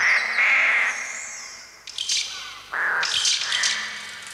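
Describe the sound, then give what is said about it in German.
Harsh, screeching bird cries synthesized by Sala on a Trautonium for the sound of a Hitchcock film, a sustained shrill tone followed by several loud, overlapping squawks in bursts, piercing with no speech. “Sala vertont den ganzen Film und bei ihm klingen dann die Vögel so.”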